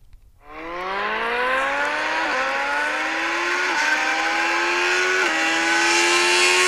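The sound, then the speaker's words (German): A car engine revs hard and accelerates as the car is driven, its pitch climbing steadily and dropping briefly at each of three gear shifts. Loud throughout, with no voices. “dann gesagt, äh, Junge, das klingt so geil, äh, ich film das jetzt. Ja, und dann bin ich einfach mal gefahren.”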